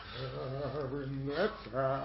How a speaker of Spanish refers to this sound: Se escucha un tarareado de una canción italiana cada vez más cerca.